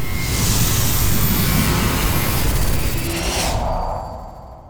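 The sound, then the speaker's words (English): An airplane approaches and roars loudly overhead, its broad engine rumble holding steady before the hissing upper tones cut away and the sound fades as it passes. No one speaks. “Doctor, that plane. Ah, it's heading this way, isn't it?”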